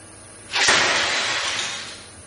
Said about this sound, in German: Er nahm eine Geige, hielt sie am Hals wie ein Schwert über dem Kopf und, Spannung, Spannung, ließ sie schließlich auf einer Tischplatte zerschellen.